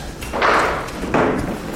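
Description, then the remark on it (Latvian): The heavy courtyard door of the Nordeķi manor house is opened and shut, two broad, rough thuds about a second apart, fairly loud, with no one speaking; the door leads straight into the manor's central hall, which is being restored. “Pavarot pagalma durvis, uzreiz nonākam mūžas centrālajā zālē, kuru šobrīd atjauno.”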